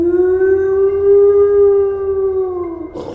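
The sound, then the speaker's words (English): A single long, sustained howl from Buddy with a steady, slightly wavering pitch and strong harmonics, sounding eerie and echoey, ending abruptly with a brief noisy burst; no talking. “You start moving past Buddy, and Buddy is howling this strange, echoey howl.”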